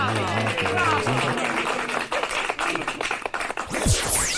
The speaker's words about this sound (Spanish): Ahora aparecen unas palmas.